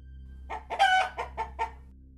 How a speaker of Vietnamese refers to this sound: Có tiếng gà kêu lên Chính là con gà trống biến dị đang từ bục cửa đi vào Nhưng tiếng kêu của nó cũng vừa đủ nghe Chứ không có hung hãn như thông thường